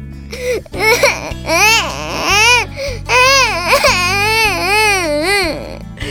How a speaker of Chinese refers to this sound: 我们出生的那一刻，第一个发出的声音是什么呢？ 是哭声啊！